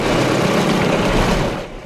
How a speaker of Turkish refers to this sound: İçler iş makineleri hızla çalışıyor.